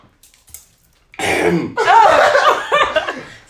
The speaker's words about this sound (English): clearing his throat.